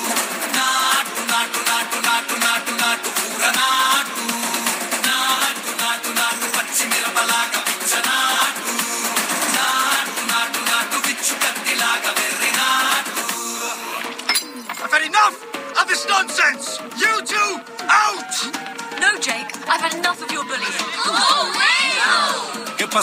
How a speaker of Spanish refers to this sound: Es una canción india que está escrita en una de las lenguas de aquel país